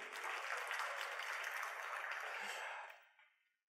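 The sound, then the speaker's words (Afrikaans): An audience claps hands together in a dense, steady burst of applause that holds evenly for about three seconds, then tapers off quickly into silence. No one speaks. “Gee sit 'n lekker hande klap toe.”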